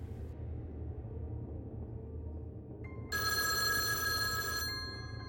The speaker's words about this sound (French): Une sonnerie retentit dans une ruelle vide. Un jeune homme à vélo, intrigué, s'arrête et cherche l'origine du bruit. Il trouve rapidement, près d'un tas de détritus, un téléphone portable.